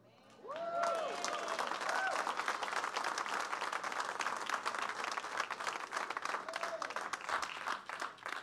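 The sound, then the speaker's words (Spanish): An audience at the Redimidos por Dios church breaks into loud, sustained applause for God, many hands clapping in a dense steady roar for about eight seconds, with a few voices calling out over it near the start. “Denle un fuerte aplauso. Let's give a strong applause.”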